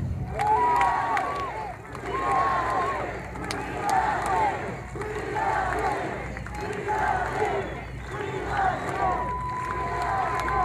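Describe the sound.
A large rally crowd roars and chants in rhythmic bursts, the massed voices rising and falling every couple of seconds with sustained cheering underneath, loud and reverberant.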